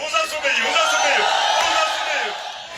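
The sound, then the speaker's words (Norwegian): A huge crowd in Dundo, a town in far northern Angola by the border with Congo, cheers and yells in a continuous, dense roar, with many overlapping high whoops and shouts rising and falling throughout, loud and sustained. “I Dundo, en by langt nord i Angola, rett ved grensa til Kongo, blir et svært publikum hausa opp.”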